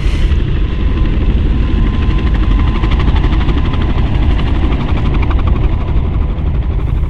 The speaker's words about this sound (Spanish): Pero el día en que nos íbamos a ir del manzano, pasaron tres helicópteros de los que nos andaban buscando. Dieron varias vueltas volando muy alto y luego se alejaron.